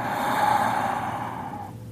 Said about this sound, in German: Beim ersten Ausatmen lässt du den Stress los. Ein kleines bisschen, du kannst ruhig laut ausatmen.